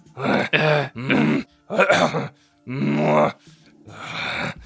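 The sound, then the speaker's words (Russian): A man imitates a film hero's gruff, grunting breaths: about five short, throaty bursts, each a strained groan-like exhale separated by brief pauses. “одна из вещей, которая мне в фильме дико понравилась, придохи майора Грома”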